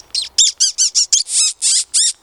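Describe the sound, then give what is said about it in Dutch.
A person imitates a bird's alarm call, a kind of alarm sound that birds often come to check out, with about nine sharp, rapid chirping notes in a steady, insistent rhythm, loud, with no talking. “Ja, dit is gewoon een soort alarmgeluid. en dat komen ze vaak even kijken.”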